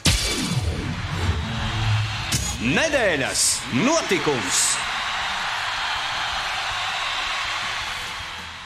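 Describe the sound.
A short radio segment jingle: a loud, sustained whooshing noise sweeps through, with a brief voice announcing the segment title near the middle, then gradually fades at the end.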